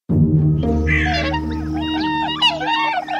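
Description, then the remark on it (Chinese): Swans resting beside a small house in a forest as night falls, calling: a run of overlapping nasal, honking cries that rise and fall in pitch for about three seconds, fairly loud, over a steady low droning tone. “天慢慢黑了，小女儿忽然看到了一个一直在打转的小房子，天鹅们正在房子边休息呢。”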